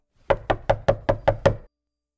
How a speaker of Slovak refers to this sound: Keď došiel hore, zaklopal na nebeskú bránu.